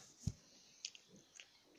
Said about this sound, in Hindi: guys काले चने खा रहे हैं इससे ऐसी आवाज आ रही है कुछ गलत मत सोचना